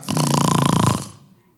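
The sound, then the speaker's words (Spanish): A person imitates a loud snore with the voice, one long rattling inhale lasting about a second, then quiet, imitating King Saul snoring after lying down to sleep at the entrance of a cave. “Saúl para dormir un rato se quitó su manto de rey y lo puso a un lado y se, acostó a roncar.”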